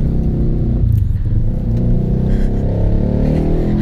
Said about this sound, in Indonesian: ya mau motornya ribut